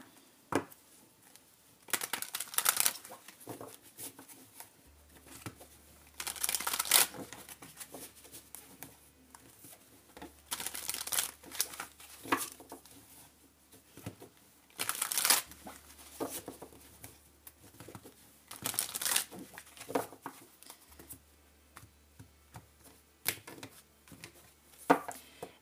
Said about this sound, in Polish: I teraz tak, potasuję karty, szukamy pięciu kart losową, natomiast pod koniec y, y, odczytu wylosuję jeszcze jedną kartę